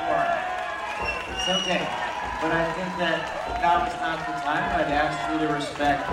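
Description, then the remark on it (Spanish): A dense crowd of protesters enters with drums, talking and calling out together, many voices overlapping at a steady, lively level with a busy, bustling background throughout. “Y básicamente lo que hacemos es entramos, ¿no? Escuchen un poquito ahí, entramos con los tambores, eh, hablando.”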